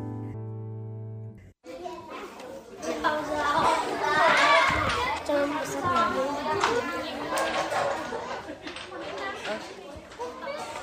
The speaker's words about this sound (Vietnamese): Những ngày cuối tuần, Thư viện sách Dương Liễu ở xã Dương Liễu, huyện Hoài Đức, Hà Nội lại rộn ràng tiếng cười đùa vui vẻ của những đứa trẻ làng quê lùi tới đây đọc và mượn sách.